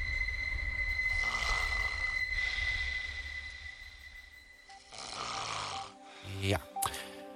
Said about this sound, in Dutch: De tram rijdt halverwege de lijn door een boog en dat maakt dit geluid.